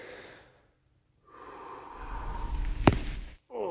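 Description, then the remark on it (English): A single sharp spinal joint pop cracks out midway through a long, forceful exhale as the chiropractor pushes down and in on the vertebrae during a chiropractic adjustment, with quiet breathing before and after and no talking. “We're going to see if we can actually hear the pop.”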